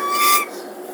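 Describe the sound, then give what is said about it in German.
Freight train at a level crossing: a bright, steady whistle-like tone over broad rushing noise for about half a second, then dropping to a softer hiss. No voices. “Geil, Bahnübergang, kommt nie ein Zug, jetzt kommt einer. Es ist ein Güterzug.”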